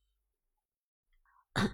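A single sharp, forceful cough bursts out loudly after a soft intake of breath, with near silence before it.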